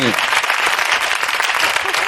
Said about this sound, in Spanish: Bueno, sí, sí, aplauso, hombre.